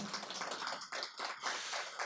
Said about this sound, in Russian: Друзья, давайте поаплодируем Арине. Аплодисменты